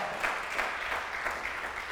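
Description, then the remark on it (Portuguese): A crowd applauds steadily, a dense wash of many hands clapping at an even level with no voices standing out. “Dá mais um aplauso, gente, que as demais.”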